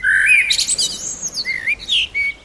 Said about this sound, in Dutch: Ja, maar hier snap ik hem wel, zeg maar. Als je het over een natuurhuisje hebt, dan... Dan hoort daar een vogel.